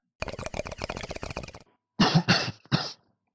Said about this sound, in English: A bubbling noise followed by a cough comes through the smoke.